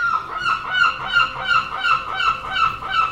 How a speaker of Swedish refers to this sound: fiskmåsarna börjar svepa ned emot dig när du tagit deras byte.